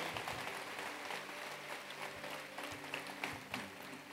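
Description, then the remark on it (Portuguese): A church audience applauds the Lord in a dense, steady wash of many hands clapping, holding an even loudness for several seconds with no one speaking, over a faint low sustained hum. “Dá um grande aplauso, Senhor.”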